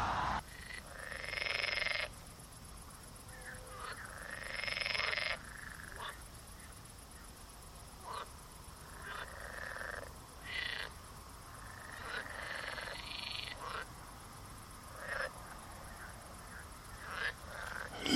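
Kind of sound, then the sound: animal, frogs croaking at night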